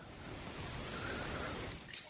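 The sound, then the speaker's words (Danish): Danish sparkling water (dansk vand) pours steadily with a soft, continuous fizzing hiss and faint trickle, fairly quiet, lasting a couple of seconds with no talking. “Jeg snupper lige en deres dansk vand her.”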